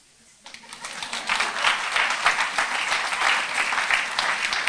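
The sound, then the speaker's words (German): A crowd bursts into applause after a brief quiet moment, dense steady clapping from many hands that swells and holds at a fairly loud level throughout. “Ihr habt nicht für mich geklatscht, ihr habt für die, den geklatscht, dem der Applaus gehört.”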